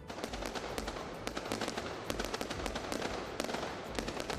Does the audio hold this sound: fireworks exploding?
yes